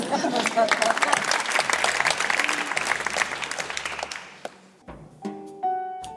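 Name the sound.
concert audience applause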